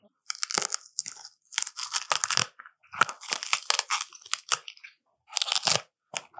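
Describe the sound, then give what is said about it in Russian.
A yogurt package being torn open: bursts of bright, crinkly tearing and rustling come in uneven clusters with short pauses between, fairly loud and with no voices. “Какую-то упаковку ты раздербаниваешь. И да, и нет. Это йогурт.”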